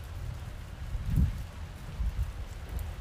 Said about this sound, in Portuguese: Você ouve a chuva? Te convido a prestar atenção.